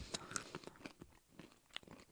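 Crisp crunching of a fried snack being chewed, a rapid irregular series of brittle snaps and crackles over about two seconds, with no talking.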